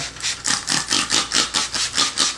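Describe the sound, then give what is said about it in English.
A spray bottle of homemade vinegar general purpose cleaner is pumped in quick succession, about ten short, hissy spritzes in a steady rapid rhythm, each a bright breathy burst, with no talking. “and spray it.”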